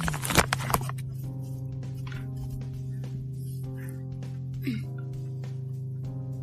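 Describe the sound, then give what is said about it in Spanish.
A steady, low buzzing electronic tone from a light-detector app on a mobile phone drones continuously after a brief clatter of handling at the start, holding a fairly even level with only slight shifts; the tone is softer while the phone's camera is covered on a bed and louder when aimed at a light. “puesto el móvil tapando la cámara sobre mi cama y por eso el sonido es más tenue, porque no ve. Ahora estamos enfocando hacia la luz y el sonido es más fuerte.”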